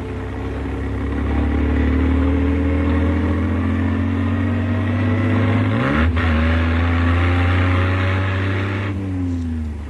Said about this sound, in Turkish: Şu küçücük arabamın motor gücünü hiçbir araba yetişemez. Yol düzgün ve güzel. Fakat Deminden beri gri renkli bir araba peşimde. Beni izliyorlar demek. Gaza biraz daha basmalı.